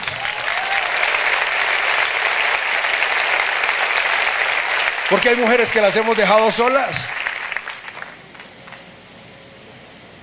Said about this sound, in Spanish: porque hay mujeres aquí que les toca solas, ¿no? Un aplauso para ellas.